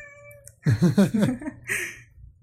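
A cat lets out a long, wavering meow, followed by a short breathy sound, with no one talking.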